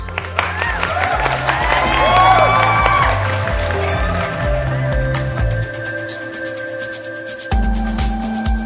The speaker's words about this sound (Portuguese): Aí, Salve de aplausos.